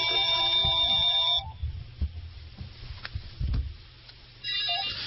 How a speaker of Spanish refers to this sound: Vamos a ver, es que estaba sonando el teléfono en el apartado.